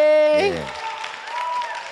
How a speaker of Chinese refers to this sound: 让我们掌声加尖叫，谢谢左光平。